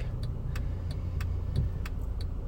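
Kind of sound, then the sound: vehicle, truck engine running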